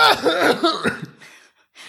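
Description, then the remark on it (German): A deliberate, staged cough bursts out in a harsh, rough, rattling fit lasting about a second, trailing into a breathy wheeze and a final faint rasp. “Ich versuche das zu untermalen mit meinem Husten, so ein bisschen mm.”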